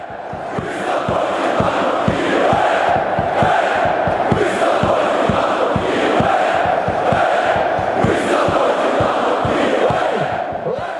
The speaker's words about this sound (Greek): Οι οπαδοί που ακούτε ανήκουν στους Ούλτρα της Δυναμό Κιέβου σε έναν αγώνα εναντίον της Αχταρντονιέτσκ στο Κίεβο